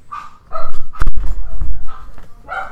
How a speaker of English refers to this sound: Dog's barking in the background. Don't let it distract you.